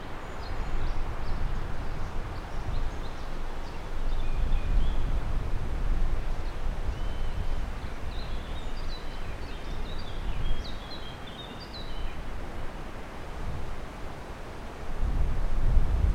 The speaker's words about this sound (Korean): 숲속의 바람 소리 오늘의 소리로 만나봤습니다.